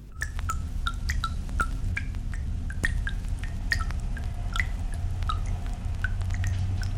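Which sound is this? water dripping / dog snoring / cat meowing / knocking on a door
water dripping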